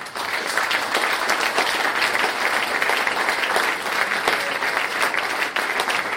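Sustained applause from an audience, a dense, steady wash of many hands clapping at once, loud and even throughout with no voices standing out.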